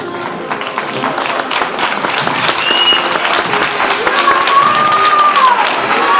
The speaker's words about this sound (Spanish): Cuando de nuevo se escuchan los vítores de Viva el Abuelo este Jesús de los Descalzos